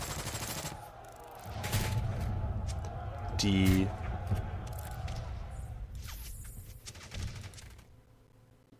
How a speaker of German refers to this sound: Und fast zeitgleich treffen wieder, trifft wieder eine Explosion den Gebäudekomplex, der beide da niederwirft.